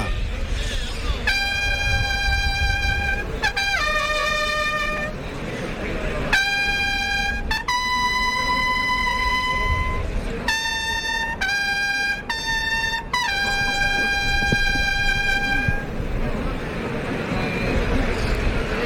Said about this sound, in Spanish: Pañuelo blanco al palco. Clarines que suenan en la maestranza.